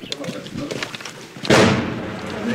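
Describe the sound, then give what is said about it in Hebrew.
A single heavy boom of outgoing artillery fire erupts suddenly after a stretch of murmuring voices and background noise, then rolls off into a long, fading rumble. “מה זה היה, מה זה היה הבום הזה? יציאה. יציאה, שאתה שומע בום, ואחר כך מין...”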